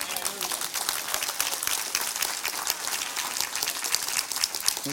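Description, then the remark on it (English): An audience applauding the Lord during a sermon, dense steady clapping for several seconds without letting up, with faint crowd voices mixed into the noise. “Because we have, yes, give the Lord a hand.”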